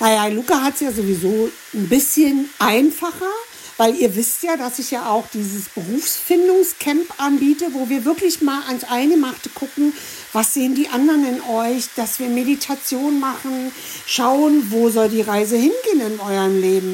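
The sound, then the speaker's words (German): Steady sizzling of food frying in a pan, with occasional stirring as one person holds the pan and another stirs, runs faintly in the background the whole time while a woman talks continuously over it. “Ja, wenn ihr, ihr hört ja so im Hintergrund unsere Kochkünste so ein bisschen.”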